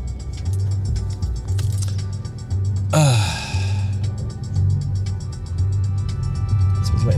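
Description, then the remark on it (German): Steady low engine rumble of a vehicle driving past a garbage truck, broken midway by a sudden loud, whining hiss like the truck's air brakes or hydraulics; no voices. “gucken hier, dass ich an der Müllabfuhr vorbeigefahren bekomme.”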